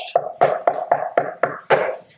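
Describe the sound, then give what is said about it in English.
A rapid series of about seven sharp knocks on a door, as kids and their parents go door to door on October 31st, fairly loud, each with a short wooden resonance, tapping out an uneven rhythm with no voices. “They're going door to door, knocking on someone's door.”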